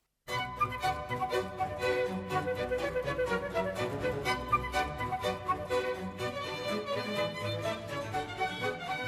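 Johann Sebastian Bach's Badinerie, a lively baroque instrumental piece, plays on its own, with quick, crisp notes in a brisk, steady rhythm at an even, fairly loud level and no voices over it.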